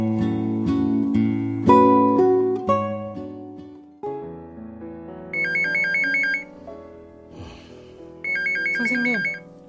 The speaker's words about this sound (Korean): 전화 왔어요.